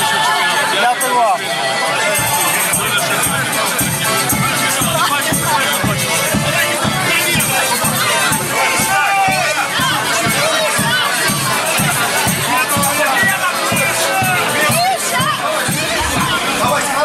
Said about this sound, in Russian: проиллюстрируем, собственно, mm. само возвращение, сам звук, да, звук со встречи в аэропорту.